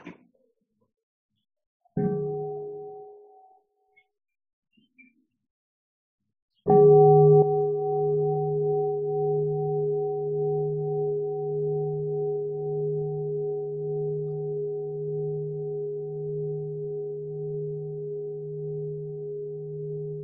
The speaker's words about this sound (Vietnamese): xin sẽ cầu thỉnh một tiếng chuông